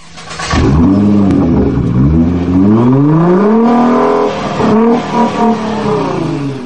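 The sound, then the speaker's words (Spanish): A car engine fires up with a short cranking burst, then revs repeatedly, its pitch climbing and falling in loud sweeps before settling into a steady throaty idle. “vamos a arrancar Auto FM, como siempre me gusta a mí decir, pues con de esta manera. Arrancamos.”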